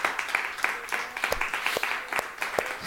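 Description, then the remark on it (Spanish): An audience applauds the Lord at a morning church service, a dense, steady patter of many hands clapping at moderate volume, with a few sharper individual claps cutting through and faint voices mixed underneath. “Un aplauso al Señor en esta mañana.”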